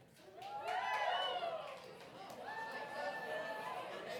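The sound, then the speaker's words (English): A crowd of children in an audience cheers and shouts together in two swelling bursts, many high voices overlapping loudly, the second wave rising again after a brief dip, cheering to show what time they go to bed on school nights. “Uh, you just cheer if this is your time that you go to bed, all right?”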